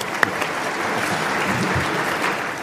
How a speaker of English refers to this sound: Kleiner Applaus.